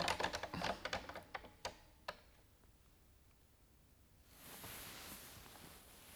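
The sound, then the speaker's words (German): A quick burst of computer keyboard typing, a dozen or so sharp clicks that slow and stop after two seconds, followed by quiet and then a soft steady hiss. “Klicken Sie das System an”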